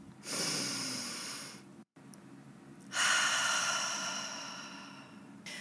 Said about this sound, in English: So I want to start by taking a deep breath and asking everyone who's listening to take one with me. Take the space to create some space in your body and just connect to the anchor that you have at all times. Right now, breathe in.